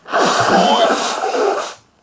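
A loud nose blow after taking snuff: one long, forceful honking burst of air through the nostrils lasting well over a second, then stopping abruptly, with no talking.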